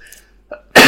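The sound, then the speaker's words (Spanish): A faint catch of breath, then one sudden, loud sneeze bursting out and running to the very end. “Salud.”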